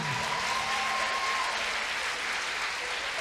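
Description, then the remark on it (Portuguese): Steady audience applause fills the whole stretch, a dense, even wash of many hands clapping at once, loud and sustained with no talking over it. “Ah, aplaude, suporta.”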